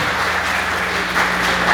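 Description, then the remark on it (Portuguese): A church crowd applauds someone married 37 years, steady dense overlapping clapping forming a continuous wash of sound with a slight swell near the end, no voices standing out. “Um salve de palmas também.”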